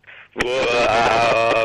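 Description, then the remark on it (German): In a contest to imitate a monkey, a person makes a loud, sustained wailing howl with a wavering, strained pitch, starting after a brief soft breathy sound and holding steady for over a second. “wer von euch beiden schön einen Affen nachmachen kann, bekommt den ersten Punkt”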